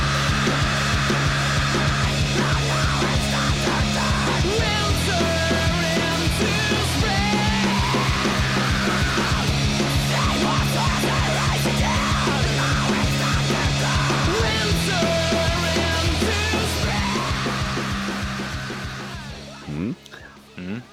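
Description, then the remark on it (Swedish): A loud emo rock song plays, with harsh screamed vocals over dense distorted guitars and pounding drums, driving steadily before fading out near the end. “Och min favoritlåt från det albumet är inte samma som du spelar upp, utan det är”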